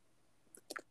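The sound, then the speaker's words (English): A few quick keyboard key taps in close succession as a search is typed into the Google search bar, crisp and fairly quiet, clustered near the end against a faint, still background with no voices. “Why am I typing a number one song on my 22nd birthday into the Google search bar?”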